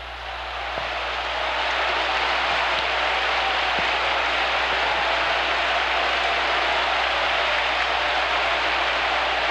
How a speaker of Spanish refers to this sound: Le vamos a dar un aplauso con gloria a Dios y aleluya.